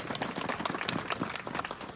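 An audience claps steadily, a dense wash of many overlapping hand claps at an even, sustained level across the whole stretch, with no voices standing out, at an opposition political event, applauding the winner of the joint opposition primary as she is given the floor.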